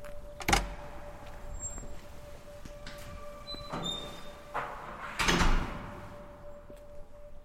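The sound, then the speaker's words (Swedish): The entrance door of an apartment building on a high-lying street overlooking lake Åsunden clicks and swings open with a few sharp knocks and a creaking scrape, followed by another heavy clunk, against a steady low hum, on a sunny, clear spring evening at six degrees above zero. “Vi går in i porten i ett av husen.”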